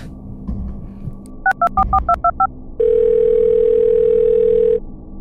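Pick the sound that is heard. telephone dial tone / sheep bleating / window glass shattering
telephone dial tone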